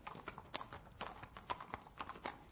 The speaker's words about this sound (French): Pendant trois mois, Chanty passe sa journée avec les chevaux. À galoper, à trotter